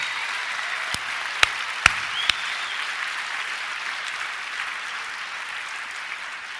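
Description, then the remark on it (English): A crowd claps steadily in a hand for the audio-visual crew, a dense wash of hand claps with a few sharp, louder claps standing out near the start before settling into even, sustained applause. “By the way, before I play this, can we give a hand to all the audio visual people and all the people who do this amazing work?”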